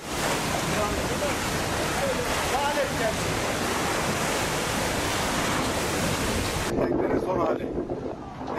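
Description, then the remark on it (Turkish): A loud, steady roar of storm-driven waves and gusting wind pounds the shore during a winter storm with rain in Turkey, with heavy buffeting on the microphone. Near the end the hiss thins out briefly as the sea keeps surging. “Yağış ve fırtına ise etkisini arttırdı.”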